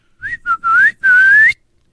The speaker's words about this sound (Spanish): Y ya le chiflé a mi mamá.